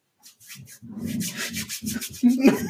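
Hands rubbing together in a handshake, a dry, brushing friction in quick back-and-forth strokes that grows slightly louder toward the end, lasting a couple of seconds.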